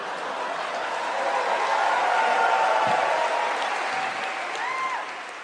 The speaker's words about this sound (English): It's a textbook Ig Nobel win. I mean, just listen to the audience laugh.